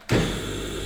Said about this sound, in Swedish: Och sen har vi en, en telfer här som låter så här.